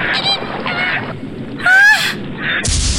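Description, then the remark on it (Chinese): Ducks in the water quacking loudly in a rapid series of harsh, nasal calls, with a sharper honking burst in the middle and no voices. “她听见水里的鸭子嘎嘎大叫。”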